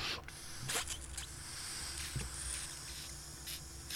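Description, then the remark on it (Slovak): Short, breathy puffs of air as a woman blows into an inflatable dolphin toy, a few hissing bursts separated by pauses over a quiet, steady background. “Vypočujete si, ako … fúka delfína.”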